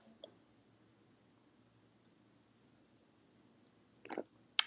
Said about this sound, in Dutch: Neem even een slokje van mijn water.